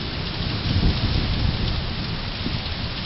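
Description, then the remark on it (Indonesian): Steady heavy rain hisses across the whole clip while low thunder rumbles underneath, swelling briefly near the start before rolling on at a constant, fairly loud level. No voices. “Saat petir menderam, kau menganggap kira-kira satu jam yang ganjil akan membentuk kesan yang menarik untuk berdagang.”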